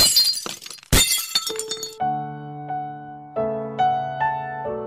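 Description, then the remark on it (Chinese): Glass shatters in a loud crash, with a heavy burst of breaking shards over about two seconds, then clear ringing tones take over, sounding in separate sustained chime-like notes. “但玻璃发生碰撞时，只能碎裂吗？”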